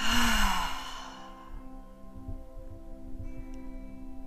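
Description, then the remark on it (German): A single deep breath pushed out through an open mouth after breathing in through the nose, one of three deep breaths in a seated breathing exercise, a soft breathy rush that fades over about a second, followed by quiet with a faint steady tonal hum in the background. “Wir atmen durch die Nase ein und durch den geöffneten Mund aus.”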